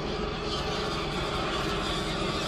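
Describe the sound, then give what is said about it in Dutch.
A steady, broad engine roar fills the scene as a helicopter flies overhead, with a low rumbling drone and no talking. “Er vliegt een helikopter over.”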